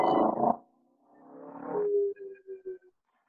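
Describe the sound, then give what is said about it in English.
A motorcycle goes by on a main street, its engine whining upward in pitch, then holding a steady drone that breaks into a few short sputtering bursts before fading out. “Did you hear any of that motorcycle that just went by?”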